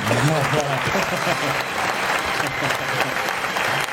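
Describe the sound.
A studio audience applauds steadily, dense overlapping clapping that stays loud and even for about four seconds, with a voice briefly audible beneath it at the start.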